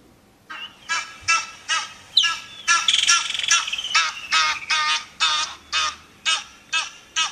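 Egyptian goose honking in a long, steady series of loud, harsh, nasal calls, about a dozen in quick rhythmic succession, with no talking.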